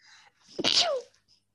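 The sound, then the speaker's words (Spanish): A single sharp sneeze bursts out after a short breathy intake, loud and explosive, then fades quickly into quiet. “Ahí voy a estornudar.”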